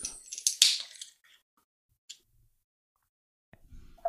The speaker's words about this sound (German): Nämlich, man nimmt eine Dose Guinness, macht die mal auf, vorsichtig. Hui.